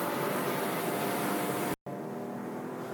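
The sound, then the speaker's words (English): A 1M car's engine roars steadily at high revs, loud, as it runs down the front stretch of the Laguna track and shifts into third on its last lap, with a momentary dropout near the end before the engine noise resumes. No one speaks. “Down the front stretch, into third, and this will be our last time around Laguna.”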